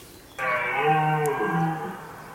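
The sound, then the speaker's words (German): A single deep, drawn-out roar of a red deer stag, played by a nature exhibit when a light is shone on the animal, harmonically rich and bellowing, starting abruptly and holding steady for about two seconds before easing off. “Der Hirsch. Der Rothirsch.”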